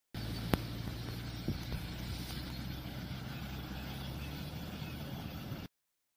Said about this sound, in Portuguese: Uma pena é, esse fato lamentável que aconteceu nessa, nessa estrada, na, na 290 e o trânsito fica em meia pista. Inclusive, nós temos um vídeo breve de como é que estava o trânsito é, no local.